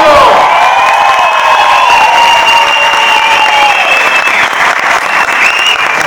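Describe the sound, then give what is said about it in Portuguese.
A packed theater audience bursts into loud, sustained applause for the show's producer, dense clapping filling all six seconds, with high whistles and cheers gliding over the top. “Salve de palmas para Rodrigo Rosa, meu produtor hoje, Amante Lover.”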